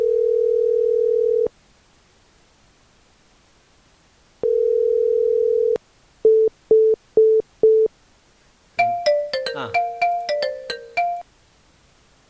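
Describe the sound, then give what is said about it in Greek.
A steady telephone dial tone hums twice, then five quick short beeps, followed by a bright, multi-note phone ringtone jingling for a couple of seconds, as a dropped caller is redialed. Clear, with no talking over it. “Ε, θα τον επαναφέρω τώρα.”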